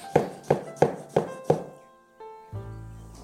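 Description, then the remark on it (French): A knife chops sucrine lettuce on a cutting board into small cubes, cutting sticks crosswise, in five steady, evenly spaced strokes, then a short ringing clatter of metal follows. No one speaks. “Et ensuite, perpendiculairement, je découpe.”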